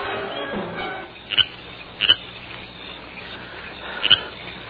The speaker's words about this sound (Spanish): Está dormido. Bien dormido. Está roncando.